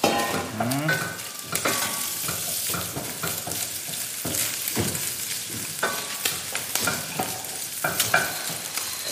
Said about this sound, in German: Je länger der anbrät, desto besser.